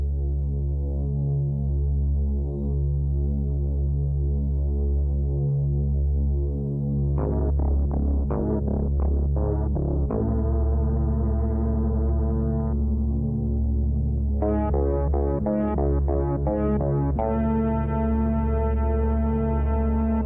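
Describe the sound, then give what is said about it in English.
Synth-heavy horror theme music: a deep, steady droning bass, then sharp pulsing synth notes enter around the middle and build into brighter, layered tones. Loud, with no voices. “They just beef it up with hella synths. Like listen to the Halloween theme from Halloween 2.”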